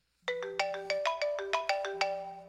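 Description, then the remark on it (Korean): A bright electronic phone ringtone signals an incoming call, playing a quick, repeating melodic pattern of chiming notes, clear, with no voices over it. “어디선가 전화가 걸려오더군요.”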